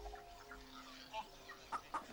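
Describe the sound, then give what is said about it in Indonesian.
Two chickens cluck as they eat rice on the ground: a few soft calls early on, then three short, sharp clucks in quick succession near the end over a quiet background. “dua ayam masih ada, sedang makan beras di tanah.”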